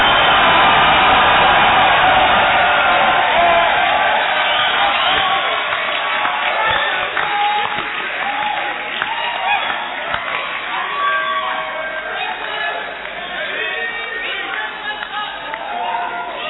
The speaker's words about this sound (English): Are you clapping your hands for the Lord? Are you lifting up your voice to give Jesus a shout of victory?